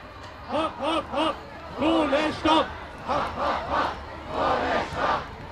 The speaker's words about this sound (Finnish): Hopi hopi, hiilelle seis. Tuhannet koululaiset huutavat Berliinissä elinkeinoministeriön edessä. Koululaiset lakkoilevat ilmaston puolesta, Tämä on osa Fridays for Future-liikettä, joka ruotsalaistyttö Greta Thunberg käynnisti.